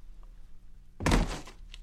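A single heavy thud of a garbage bag dropping around dawn, sudden, with a short muffled rustling tail after quiet low background hum.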